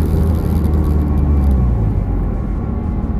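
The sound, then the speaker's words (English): A heavy garbage truck rumbles past on the road, its deep engine drone steady and loud throughout with a low, churning roar and no voices. “Sorry, I paused because there's a trash can. Another, not trash can, a trash truck, garbage truck.”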